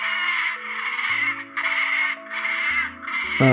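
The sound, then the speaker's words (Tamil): A crow caws four times in quick succession, each call harsh and raspy, with short gaps between them and a low, steady musical drone running underneath. “கேட்டுருங்களா பறவை சத்தம்லாம் கேட்டிங்களா எப்படி கற்றுக்கு பார்த்தீங்களா”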